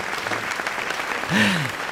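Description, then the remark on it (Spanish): Dense, steady audience applause for the artist fills the whole two seconds, many hands clapping at once, swelling slightly louder toward the end as a brief rising-and-falling vocal or whistle-like tone rides over it. “El aplauso para el artista es, eh, es lo máximo, ¿no?”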